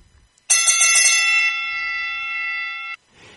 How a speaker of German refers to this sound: Ich muss dich unterbrechen, weil jetzt muss ich die Glocke nochmal anschmeißen.